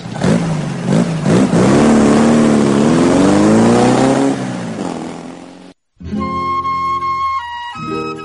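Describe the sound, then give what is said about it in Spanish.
A motorcycle engine revs loudly, its pitch climbing, then pulls away and fades. It cuts off abruptly, and after a short silence a steady, tonal musical sound follows. “Te subes a la moto y te vas.”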